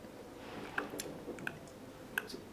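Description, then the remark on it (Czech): A clock ticks softly and steadily, three crisp clicks at an even pace over a quiet, faintly murmuring background with no voices. “tikání hodin, víš?”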